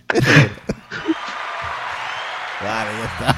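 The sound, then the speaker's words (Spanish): A burst of canned applause from a sound-effect machine plays for a few seconds as a steady wash of clapping, given to a woman who sang a cappella, with someone talking loudly over the start and a voice returning near the end. “Dale el aplauso a mi amiga.”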